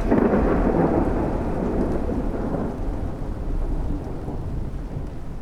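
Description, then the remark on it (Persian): Steady, dense rainfall pours down, joined by a deep low rumble of thunder that swells early on and slowly fades, with no voices present. “شگفتا که باران باریدنش را صدا میزند گاهی زمزمه میکند گاهی فریاد”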